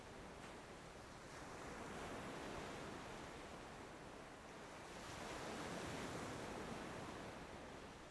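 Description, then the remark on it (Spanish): Ocean waves wash steadily onto the shore, a broad rushing roar that swells twice as breakers roll in and recede. No voices, just continuous surf. “le damos gracias al mar por conectarnos con la plenitud del momento presente”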